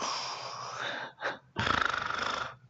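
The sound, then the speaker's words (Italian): Someone imitates a small, faint snore with their voice: a long breathy inhale, a brief puff, then a rattling, fluttering snort held for about a second, fairly loud, with no talking. “faceva sti tic nervosi, cioè lui sentiva tipo un mini rumore di russo, così.”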